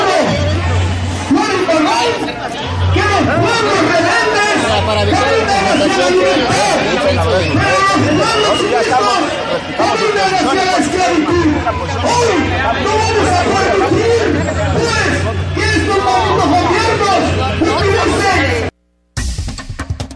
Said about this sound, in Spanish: Ciudad de México y bueno, también enfrentamientos entre policías e integrantes de la gente en Oaxaca y bueno, los disidentes buscaban llegar al Zócalo capitalino. Tenemos sonidos de cómo estaba la protesta hace unos momentos, escuchemos.